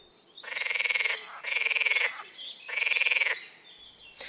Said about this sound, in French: ils se gonflent pour produire un chant très fort. Ainsi, le chant d'une grenouille verte ressemble au bruit d'un élastique tendu qu'on aurait relâché subitement.